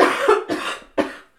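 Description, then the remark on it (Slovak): Three hoarse coughs from a cold in quick succession, fairly loud and broad, with the last one short and sharp, with no talking around them. “Toto sú inak detské sople, aby som vylúčila uh, Eh, pochybnosti o mm, covide,”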